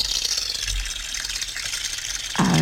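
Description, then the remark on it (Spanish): A fountain sound played from a mobile phone: continuous splashing water, a steady bright hiss that stays fairly loud throughout, with a sudden lower, fuller gush near the very end. “sonidito de una fuente.”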